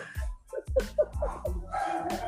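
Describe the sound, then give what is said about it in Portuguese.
A dog barks several times in quick, uneven succession, moderately loud, with a faint background murmur beneath the barks. “cachorro latindo, é carro buzinando, é moto buzinando, né?”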